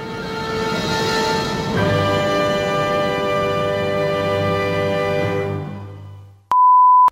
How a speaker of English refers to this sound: Yes, ladies and gentlemen, that alarm that you hear in our opening means we're back.